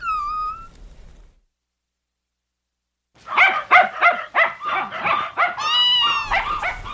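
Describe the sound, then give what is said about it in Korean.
Byeol-i, a former stray dog, lets out a brief high whine, falls silent, then breaks into a quick run of sharp, high-pitched barks and yips that trail into a wavering whimper. No one speaks. “유기견 됐을 때 충격을 많이 받아서 그런가?”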